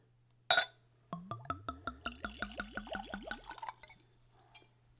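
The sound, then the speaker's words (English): Brandy pours from a screw-cap bottle into a clean Glencairn glass, neat at room temperature, in a quick series of rhythmic glugs over a few seconds, preceded by a single sharp clink. No one speaks. “So let's go for a pour.”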